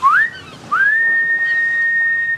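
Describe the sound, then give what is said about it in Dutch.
A human whistle imitates a ship's general call signal: a short rising note, then a second rise into a long, steady, shrill tone held for about two seconds, loud. “Sommigen zeggen dat het uit de scheepvaart komt, wanneer tijdens het varen de aandacht van de hele bemanning van het schip snel getrokken moest worden, bij gevaar of zo, gebruikte men een general call, een fluitsignaal dat ongeveer zo klonk”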